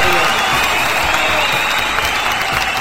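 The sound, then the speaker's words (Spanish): An audience applauds a storyteller after a story they loved, a dense wash of many hands clapping at a constant, loud level throughout, with no single claps standing out and no voices rising above it. “Ahí está el público aplaudiéndote porque les encantó tu cuento.”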